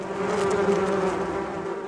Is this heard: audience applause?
no